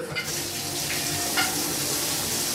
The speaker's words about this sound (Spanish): Mientras el agua caliente recorre nuestros relajados cuerpos y en la soledad del baño, hemos dejado la vida cantando a todo pulmón en ese pequeño escenario lleno de azulejos